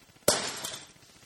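A single sharp crash of glass shattering, followed by a brief bright tinkle of falling fragments that fades quickly. It is fairly loud, with no voices.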